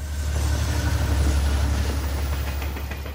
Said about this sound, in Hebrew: הרכבת עוברת בכפר פעם ביום ברעש גדול. כל עוברי האורח עוצרים את מה שהם עושים באותו רגע ומסתכלים עליה. אבל הרכבת לא עוצרת.